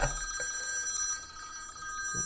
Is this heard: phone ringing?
yes